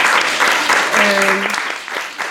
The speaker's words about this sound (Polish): Co robimy, jak słyszymy Prosper Sosnowca? Bijemy brawo, tak?